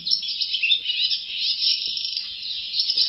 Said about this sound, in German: Und an diesem, äh, dazwischen diesem Teil, äh, daran erkennt man, find, oder ich, Schwalben am ehesten. Ist aber auch nur die Rauchschwalbe, die so macht. Ja. Dieses ja, ist typisch Rauchschwalbe.